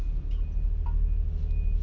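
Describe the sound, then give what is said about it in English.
A garbage truck rumbles heavily and steadily, its deep engine filling the scene while a thin, faint high-pitched reversing beep sounds over it. No one speaks. “Man, how many garbage trucks out here?”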